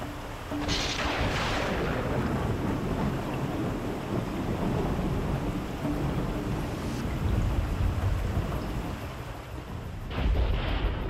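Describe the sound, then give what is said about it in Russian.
Steady, dense downpour roars throughout, with deep rolling thunder rumbling underneath and sharper cracks bursting near the start and again at the end. No voices. “Как и грозился гигант, на землю тогда обрушились ливни – так впервые жители Земли узнали, что такое сильнейший шторм, а разгневанный гигант кричал так неистово, что образовались молнии.”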